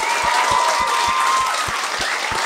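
An audience applauds loudly and steadily for a couple of seconds, a dense wash of many hands clapping with a regular low thumping beat running underneath.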